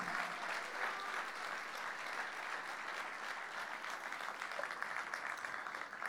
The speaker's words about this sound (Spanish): ¿Cuánto dicen amén al Señor? Denle un fuerte aplauso al Señor, hermano.